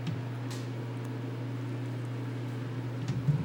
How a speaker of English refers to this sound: You know, hopefully the air conditioning wasn't too bad. You could hear what I was saying.